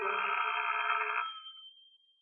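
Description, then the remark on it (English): A single burst of an old telephone bell ringing at home after dark as a call comes through, bright and metallic, sustained for about a second before fading out with a lingering high tone. Fairly loud, no voices. “I went home and waited for the phone to ring.”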